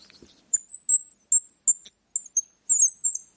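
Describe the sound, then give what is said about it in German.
A twisted bird call, a piece of wood with a piece of iron inside that is turned, squeaks out a quick, uneven run of shrill, bird-like chirps, about a dozen short bursts, with no voices. “eines Stück Holz und da ist so ein, so ein Eisenstück drin und wenn man daran dreht, ich kann das gerne mal vorführen.”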